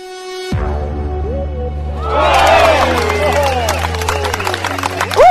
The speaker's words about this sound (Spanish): Uh, aplausos nuevos. Feliz gente. Me gusta.